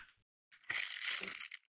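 Paper liners from a chocolate box crinkle and rustle in one dense, crackly burst lasting about a second, preceded by a faint brief rustle, with no voices.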